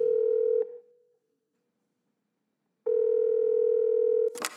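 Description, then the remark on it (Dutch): A telephone ringing tone purrs through the line as someone calls a retired acquaintance, one ring cut short, a pause, then a second long steady ring that ends in a sharp click as the call connects. No one speaks. “ik heb zijn telefoonnummer, dus ik ga meteen even bellen.”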